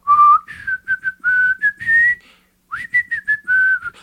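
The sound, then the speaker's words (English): A person whistles a bouncy pop tune, a string of clear, bright notes in two phrases separated by a short pause, with no talking. “Speaking of whistle songs, do you guys know this song?”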